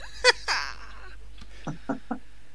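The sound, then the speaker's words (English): A pet rabbit named Buddy chewing on his little red toy train: two sharp, crunchy bursts, then three softer, evenly spaced gnawing pulses with an almost clucking quality, fairly quiet, with no talking. “He's eating his choo-choo trade.”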